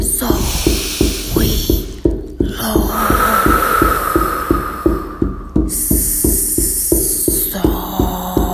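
A steady, fairly quick drumbeat for a guided drum journey, even, deep thuds repeating without pause, with a hissing, shimmering layer drifting above it. No one speaks.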